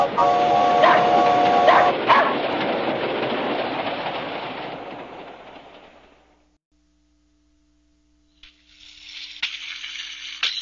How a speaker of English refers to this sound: The dog is on a train.